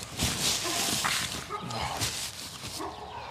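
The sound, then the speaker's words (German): Dogs bark in the background, several short yapping barks in quick succession over steady background noise, moderately loud. “Hat man die Hunde eigentlich?”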